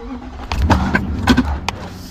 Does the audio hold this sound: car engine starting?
yes